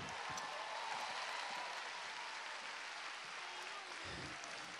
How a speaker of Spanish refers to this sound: Y si alguien lo creyó, quiero que aplauda bien a Dios en esta.